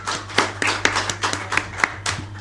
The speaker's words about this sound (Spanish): Un aplauso para el señor